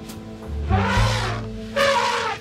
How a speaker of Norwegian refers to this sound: De lydene her med en elefant er priceless. Den ble jeg liksom aldri tenkt over hvis en elefant klikker helt og bare skriker. Er det en falsk elefant som føder?